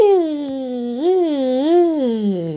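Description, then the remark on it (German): A voice imitates a vacuum cleaner motor starting up as it is switched on by its button in a hallway, after a new empty dust bag is fitted: a sustained, whining hum held for a couple of seconds, its pitch rising and dipping in slow waves, fairly loud. “Sofort geht der Staubsauger an.”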